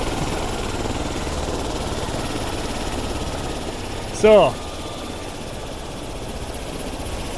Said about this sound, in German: Warten wir kurz, bis der Heli aus ist, dann geht es leichter.